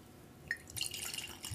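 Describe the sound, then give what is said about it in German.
A drink is poured into a glass for tasting: a couple of bright drip-like plinks, then a steady, soft splashing trickle that keeps running to the end. Fairly quiet, with no talking. “Ja, gieß mal ein.”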